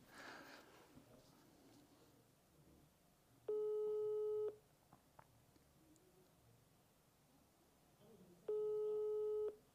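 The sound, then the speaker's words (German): An outgoing call's ringback tone sounds twice, each a steady, fairly low-pitched buzzing tone about a second long, separated by a few seconds of quiet background hiss. “Es hat jetzt schon öfters geklingelt, das ist auch wichtig.”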